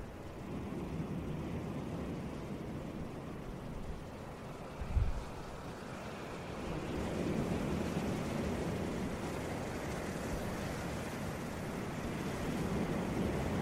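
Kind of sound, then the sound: nature, ocean waves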